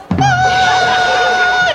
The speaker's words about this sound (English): oh, whistle tones. That's appropriate.